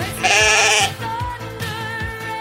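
A ram lets out one loud, wavering bleat lasting about half a second. Afterwards, a steady, low thumping beat carries on with some faint tonal sounds.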